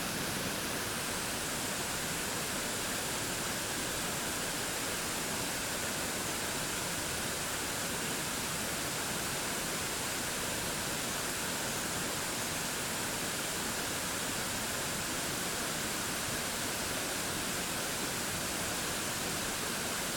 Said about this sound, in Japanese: 滝の音に耳を傾けていると徐々にリラックスが深まっていきますそのまま滝の音と自分の呼吸に集中しましょうもし何か考えが浮かんだり意識が逸れていることに気がついたらもう一度滝の音に集中し直しましょう